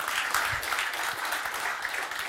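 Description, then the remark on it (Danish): Steady church audience applause celebrating the planned inauguration of a new church centre on 31 March 2024 at Easter, a dense wash of many hands clapping at an even, moderate loudness with no pauses, and no voices standing out. “Det må gerne lige klappe lidt af.”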